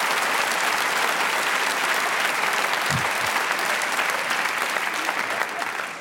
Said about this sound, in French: Vous avez applaudi ça